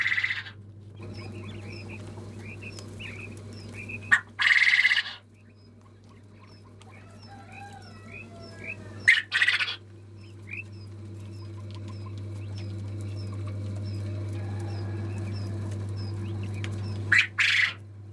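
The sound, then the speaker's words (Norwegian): Busy bird chirps and harsh squawks overlap continuously, with a few sharp louder bursts and a steady low hum underneath; no one speaks. “Det er, det er en veldig artige fugler.”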